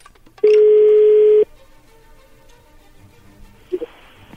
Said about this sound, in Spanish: Ahí se está marcando. No haga ruido, por favor.